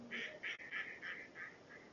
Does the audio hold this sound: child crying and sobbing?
no